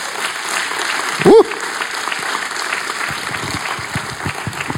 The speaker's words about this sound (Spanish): Un aplauso para el Señor.